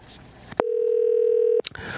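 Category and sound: signal or alarm, telephone ringing tone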